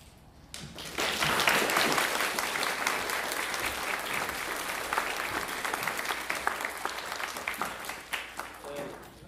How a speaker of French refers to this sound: Lorsque je vais claquer dans les doigts, vous allez ouvrir les yeux et les gens du public qui vous aiment vont vous applaudir.